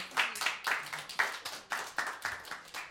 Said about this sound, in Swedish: En till applåd för …